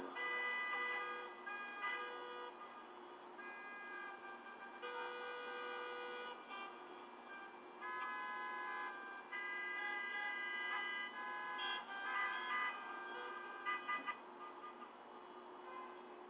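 Busy street traffic with car horns honking over and over, several overlapping blasts of different pitches sounding almost continuously, loud, with no one talking.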